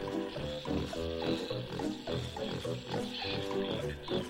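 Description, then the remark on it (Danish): Deep, rumbling grunts and snorts of a hungry plant-eating dinosaur repeat in quick, uneven bursts for several seconds, loud, like a large creature growling continuously. “Vores dinosaurus er vist sulten.”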